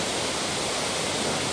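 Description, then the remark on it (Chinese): A waterfall pours steadily from its uppermost tier: the outer water falls straight onto the pool, the inner water strikes the rock wall and splashes off the rock blocks. It makes a continuous, even hiss of rushing, splashing water with no pauses and no voices. “靠外层的直接打在水池上，比较靠内层的，它们落下的时候就打在岩壁”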